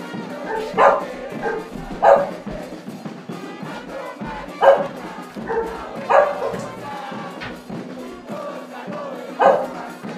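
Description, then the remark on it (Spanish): A small dog barks about six times in sharp, high-pitched yaps spaced a second or two apart, standing out over a steady murmur of crowd noise and voices. “Bueno, estamos aquí con el perrito para que nos ayude con la garganta.”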